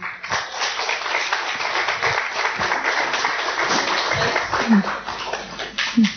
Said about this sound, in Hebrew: יאללה, אז בואו תגידו תנו מחיאות כפיים